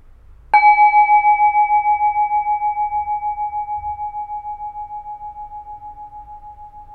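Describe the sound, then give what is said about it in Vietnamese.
A single meditation bowl bell is struck once, ringing with a clear sustained tone that slowly fades over several seconds, its hum gently pulsing as it decays, with no talking. “mời mọi người mình thả lỏng, mình lắng nghe tiếng chuông.”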